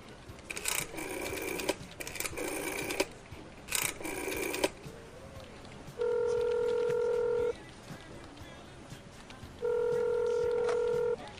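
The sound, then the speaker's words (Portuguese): Telephone dialing tones of a call to Jack's motel: three short, bright bursts of dialing sound, then two long, steady ringing tones separated by a pause, fairly loud with no talking. “Eu pego o telefone na hora, nem falo nada, ligo”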